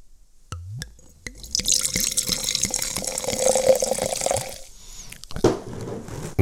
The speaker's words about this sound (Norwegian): Nå må jeg bare skjenke, for nå ble jeg veldig tørst.